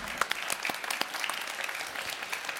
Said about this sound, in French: Merci à nous. On applaudit tout le monde. Merci infiniment.